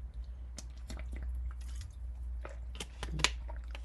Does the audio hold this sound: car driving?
no